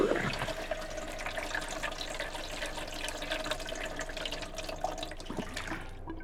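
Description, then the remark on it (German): Water pours steadily onto a houseplant for several seconds, a continuous splashing, gurgling stream that stops abruptly near the end. No one speaks. “Oh, scheiße, ich hab vergessen, sie zu gießen.”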